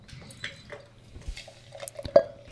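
Beer pours into a glass, with soft gurgling, fizzy splashes and small drips, punctuated by light glassy clinks and one sharper clink near the end. No one speaks.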